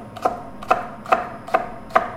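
A knife dicing a red onion into not-too-small cubes on a cutting board: five crisp, evenly spaced chops at a steady, unhurried rhythm, each a short knock with a faint ringing edge. No one speaks.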